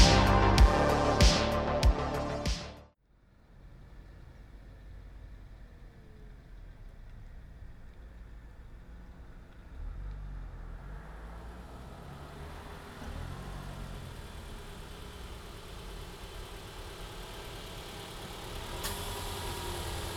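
A short burst of music cuts off, leaving a car engine idling with a low, steady rumble while the car is being parked; the rumble grows slightly louder partway through and holds evenly to the end, with no talking.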